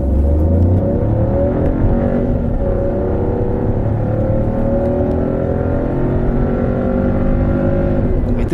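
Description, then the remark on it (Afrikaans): A Citroën C3's 81 kW 1.2-litre three-cylinder turbo petrol engine growls steadily, its low, throaty note rising and falling as it revs, with a constant loud drone and shifting harmonic tones throughout, no voices present. “mooi 3-silinder grom, sy 81 kW 1.2 liter petrol turbo sorg vir lewendige verrigting.”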